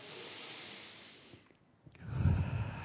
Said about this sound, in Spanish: Y primero que todo, quiero que se relajen, tomen una respiración profunda